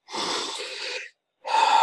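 A person imitates heavy breathing: one long, loud, breathy exhale, a brief pause, then a sharp, slightly wheezy intake of breath. No talking.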